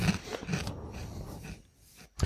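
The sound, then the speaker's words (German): Crackly crunching as a fortune cookie is bitten and chewed, a few dry snaps early on, then fading to quieter grinding before a short final crunch. “Ich würde ja gerne in diesen Glückskick reinbeißen, aber es ist bestimmt wahnsinnig laut.”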